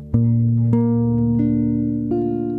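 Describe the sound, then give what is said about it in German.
Sustained, steady keyboard chords change a few times in a row, moving from D minor to B-flat major, both played as triads. Each new chord enters with a soft attack and rings on evenly, with no voices. “Erster Akkord D-Moll, zweite Akkord b dur dreiklang Tja, das war's.”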